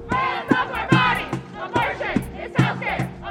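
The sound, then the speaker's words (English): A loud protest crowd outside the US Supreme Court on a Wednesday, before oral arguments in an abortion rights case, with protesters on both sides, chants in steady, rhythmic bursts, many voices shouting together in a repeating cadence with a constant roar of other voices underneath. “Crowds always gather outside the Supreme Court before major arguments, but on Wednesday you could tell that protesters on both sides were especially charged up.”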